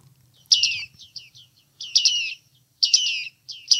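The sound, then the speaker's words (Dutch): Bearded reedling calls: clusters of high, metallic pinging notes repeated in quick bursts, clear, over a faint low rumble with no talking. “Het baardmannetje. En klinkt die wellicht zo?”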